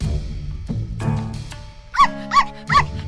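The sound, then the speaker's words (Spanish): A dog barks three times in quick succession, short and sharp, each bark evenly spaced about a third of a second apart, with a low background sound underneath and no talking. “Lo más parecido que yo conozco a la bondad y al amor incondicional es un perro.”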